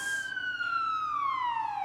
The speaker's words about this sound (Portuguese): Tocou a sirene, piscou a luz.